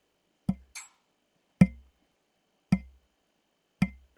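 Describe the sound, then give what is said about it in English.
Someone imitates water dripping: four sharp, evenly spaced plinks about a second apart, fairly loud, with a brief hiss after the first and silence between. “Getting this sort of sound, I'm half conscious. I go, "Is that fucking water dripping?"”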